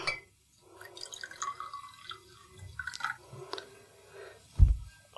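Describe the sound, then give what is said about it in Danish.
Water is poured into a drinking glass containing a powder, with trickling, dripping and faint clinking sounds, ending with a brief low thud near the end. “Og så øh, kan jeg tage øh, vand. Mm. Og så hælder jeg det ned i det første glas her.”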